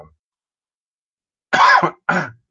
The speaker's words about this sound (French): Comme ça, je recommence à tousser.